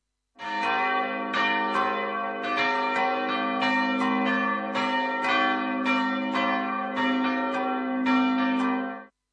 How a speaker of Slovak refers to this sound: Toto sú zvony z kostola svätého Jána Krstiteľa v Medzibrode.